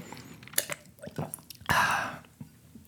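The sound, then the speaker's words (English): A few quiet mouth sounds of someone sipping water: small wet clicks and slurps, then a short airy gulp and exhale, with no talking. “Because um, hold on, let me have a little sip, sip of water here.”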